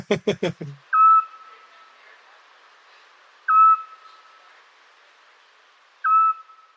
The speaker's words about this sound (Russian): Еще часто можно слышать сплюшку, сова, которая называется сплюшка. Она, называется она так, потому что она характерно кричит «Сплю! Сплю!»